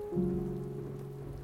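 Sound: rain falling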